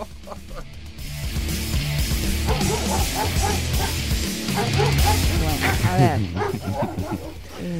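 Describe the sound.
A person imitates a dog, letting out a string of yips and barks that slide into whiny whimpers, fairly loud, with laughter mixed in.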